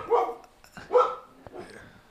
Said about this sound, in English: Oh yeah, he has a little dog. He's barking, but he comes back now.